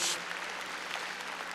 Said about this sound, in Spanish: A ver, démosle palmas fuertes a nuestro Señor. Gloria a Dios.